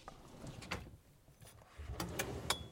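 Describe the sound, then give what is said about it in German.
A drawer in a break room with lockers slides open and shut with a low rumble and several sharp clicks and knocks, fairly quiet, with no voices; someone is looking inside the drawers. “Ich guck mal rein in diese Schubladen in diesem Aufenthaltsraum”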